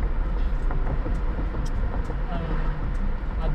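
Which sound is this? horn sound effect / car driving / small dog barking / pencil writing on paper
car driving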